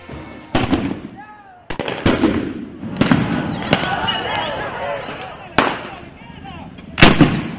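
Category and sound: impact, gunfire detonations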